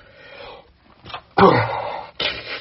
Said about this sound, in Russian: Что-то я сегодня чихаю.